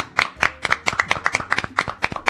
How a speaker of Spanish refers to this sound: Continuamos en el mañana, siendo las 11 y 25, y voy a pedir este, un aplauso muy fuerte para el señor …, ¿sí?